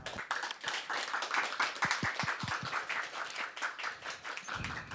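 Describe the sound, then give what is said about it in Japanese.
Several people at home clap steadily for about five seconds at the end of a long online session, their claps overlapping into a dense, even patter at moderate volume, with a few sharper individual claps standing out and no talking. “皆さんあのご自宅だと思うんですけど拍手をぜひお願いします。”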